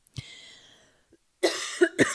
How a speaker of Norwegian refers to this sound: Ok, da før jeg eh, hoster meg ut av rommet her,